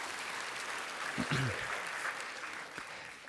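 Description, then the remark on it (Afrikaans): Steady crowd applause for two worship leaders fills the whole stretch, a dense hiss of many hands clapping at fairly even loudness, with a brief voice calling out partway through. “gee vir hulle lekker hande klap toe dankie”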